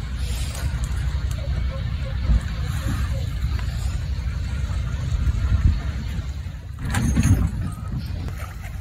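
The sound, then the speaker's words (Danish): A few dull, heavy thuds at irregular intervals as an orca bangs against a boat hull, over a constant low rumble of water and wind, with no talking. “lyden her, det stammer fra en video, der er leveret af Reuters Bureau, og det man kan høre, der banker mod båden i klippet her, det er simpelthen en spækhugger.”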